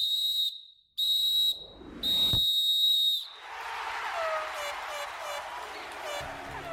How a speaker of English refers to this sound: There's the final whistle.